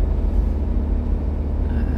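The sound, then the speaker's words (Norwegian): A steady low rumble of a motor vehicle on the road, like riding in a car as it drives past a large bus with its indicator blinking, with no voices heard. “Jeg måtte bare kjøre forbi en buss, bussblink eh, der, så jeg eh, eh snakker jeg på autopilot.”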